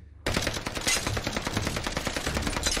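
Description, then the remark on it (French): A sudden burst of rapid automatic gunfire erupts after a brief silence, strafing the front of a small house on a remote little archipelago, and continues as a dense, loud, sustained volley of shots with no voices. “La façade de la petite maison est soudainement mitraillée.”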